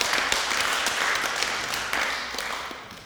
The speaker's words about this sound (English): So praise the Lord, hey? Round of applause to the Lord. Like, I think it's, it's awesome.